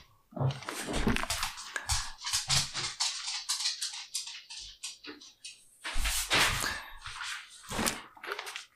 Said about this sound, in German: Ich muss mal eben äh, Tür zu machen.